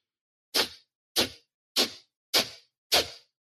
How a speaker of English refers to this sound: this breathwork practice is done with forceful exhales out of the nose